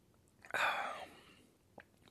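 A crisp bite into a sandwich followed by a second of crunchy chewing, then quiet with a soft click near the end. No one speaks.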